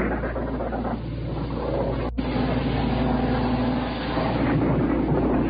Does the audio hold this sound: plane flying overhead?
yes